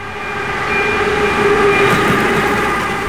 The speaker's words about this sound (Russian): Голова черного локомотива проехала мимо лица прадеда.